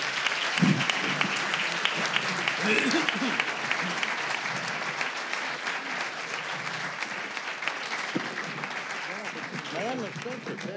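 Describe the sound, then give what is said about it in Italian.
Sustained audience applause, a dense steady patter of many hands clapping for about ten seconds, with faint voices murmuring underneath, as the young participants of the evening's event applaud themselves. “devo ringraziare prima di tutto i ragazzi che hanno partecipato, direi di farvi un applauso da soli.”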